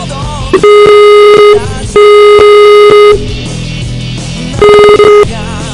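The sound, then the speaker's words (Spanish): An outgoing call's ringback tone sounds three times, each a steady, fairly loud electronic tone lasting about a second with pauses between, over a faint background murmur. “Vale, ahora vamos, vamos a llamar ahora sí.”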